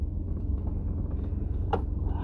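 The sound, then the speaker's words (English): Steady, heavy low rumble of road noise inside a truck cab, droning continuously throughout, with a brief sharp higher-pitched rattle or squeak near the end. “Hear some loud background noise. I'm a riding in the truck.”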